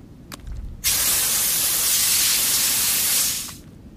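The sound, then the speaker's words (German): Water sprays steadily from a garden hose in one loud, continuous hissing burst lasting about three seconds, starting abruptly and then tapering off, with a faint click just before it. “Wenn wir hier schon kein Wasser sehen, dann kommt es wenigstens aus dem Wasserschlauch.”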